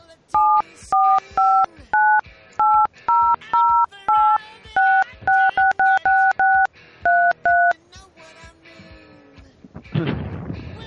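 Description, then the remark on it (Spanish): A quick run of touch-tone keypad beeps as a telephone number is dialed to call someone, around seventeen short dual-tone presses in a brisk, slightly uneven rhythm, clear, followed after a pause by a brief burst of rustling noise. “Pero bueno vamos a llamarlo.”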